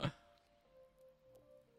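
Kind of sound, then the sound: human body sound, burp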